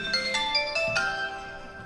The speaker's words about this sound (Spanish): Voy a tener que apagar mi, mi celular porque me están entrando llamadas, pero ya estamos al cierre de esto.